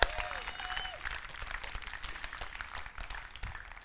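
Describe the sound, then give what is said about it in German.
An audience at a Sunday morning Connect-Kirche church service bursts into steady applause for the service's moderator, many hands clapping in a dense, continuous patter for a few seconds, with faint voices mixed in near the start. “Lass uns hier mal einen fetten Applaus geben, weil die macht richtig gut.”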